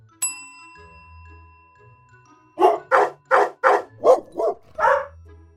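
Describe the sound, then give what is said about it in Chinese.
A bright chime rings out, then after a short pause a dog barks in a quick series of about seven sharp, loud barks with no talking, played in an animal-sound quiz for children. “这是什么动物呢？是小狗狗，你答对了吗？”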